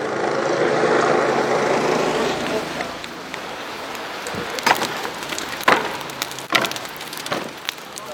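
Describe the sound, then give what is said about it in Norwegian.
A large outdoor bonfire beside a river roars and crackles steadily, with sharp wooden snaps and thuds as people hit by a flood throw on furniture and planks ruined by water, silt and mud; faint voices murmur in the background. “Dette er et uh, bål som ligger like ved elven, hvor uh, folk som har blitt uh, rammet av flommen, bærer ut ødelagte møbler, planker, det som er totalødelagt av vann, slam og gjørme, og hiver det på bålet, for det må brennes.”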